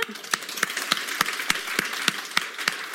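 An audience applauds steadily, a dense wash of clapping with sharper, evenly spaced claps standing out about three times a second. The applause stays at a moderate level throughout, with no talking.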